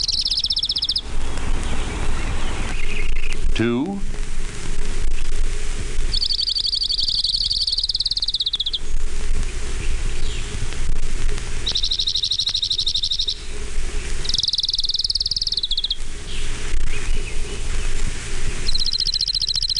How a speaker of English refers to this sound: orange-crowned warbler.